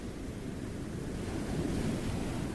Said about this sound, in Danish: Som sagt synes jeg, det gynger en hel del, og det er jo nok fjollet, i forhold til, at jeg er rimelig sikker på, at det her er nogle af de mildeste bølger, vi kommer til at opleve.